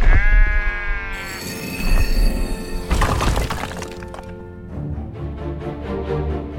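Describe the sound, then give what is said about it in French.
Sheep being taken to graze in the mountains bleat loudly, several overlapping wavering cries, with a sharp clattering crash partway through and a busy rustling, shuffling background. “Puis, il s'en va faire paître ses moutons dans la montagne.”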